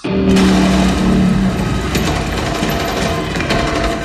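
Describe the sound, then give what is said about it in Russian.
A loud burst of automatic gunfire in a film rattles on for several seconds in dense rapid shots, breaking off the tuning of musical instruments, a few held tones of which sound faintly underneath at the start. “Дальше у тебя заканчивается настройка инструментов, и она прерывается автоматной очередью.”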